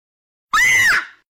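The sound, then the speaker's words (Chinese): A single sudden, high-pitched scream bursts out of silence, loud and sustained for about half a second with a wavering shrill tone, then trails off quickly. “不知谁一声尖叫，刹那间，呼喊声、惊叫声、求救声乱成一团。”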